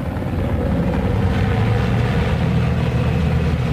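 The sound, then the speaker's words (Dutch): A military helicopter passes over the Pentagon, its steady, loud low-pitched rotor thrum and engine drone filling the whole stretch without pause. No voices are heard. “De militaire helikopter scheert over het Pentagon.”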